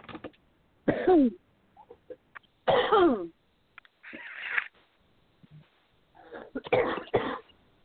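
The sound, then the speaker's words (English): Several harsh coughs from a person during a spoken prayer come in separate bursts with short pauses between them, including a rough throat-clearing rasp, loud and with no talking. “Excuse my coughing.”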